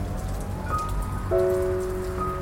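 Steady rain patters on a hard surface in a constant hiss, with a few faint sustained musical tones drifting above it. No one speaks.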